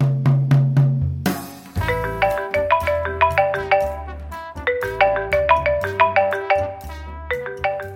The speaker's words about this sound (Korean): 전화 전화 왔어